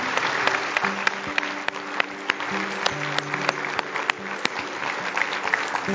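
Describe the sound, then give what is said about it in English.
An audience at a morning church service applauds steadily to thank the speakers, a dense wash of many hands clapping at once, sustained, with a faint hum or organ-like tone running underneath. “Would you join me in thanking these folks for speaking with us this morning?”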